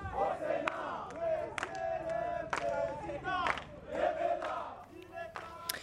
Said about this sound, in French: accompagné d'un chant de militants du mouvement Lucha au Congo